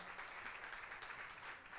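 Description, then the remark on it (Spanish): An audience at 3W Church applauds the Lord steadily, a dense wash of many hands clapping at once with sharp claps popping out now and then, sustained at an even level with no talking. “Dale un fuerte aplauso al Señor en este día.”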